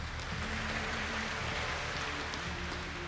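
Steady audience applause at a Tzu Chi gathering welcoming a volunteer from Shilin District, Taipei, to the stage fills the whole clip, a dense crackling wash of many hands clapping at once with no talk over it and a faint low hum underneath.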